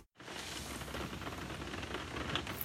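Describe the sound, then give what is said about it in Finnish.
Steady rain patters on a skylight, a dense, even hiss of countless drops striking. It starts abruptly and holds at a constant level throughout, with no voices. “Kuunnelkaa nyt. taivaski itkee. Kyyneleet ropisee kattolukkuun.”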